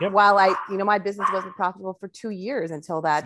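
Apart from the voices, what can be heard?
dog barking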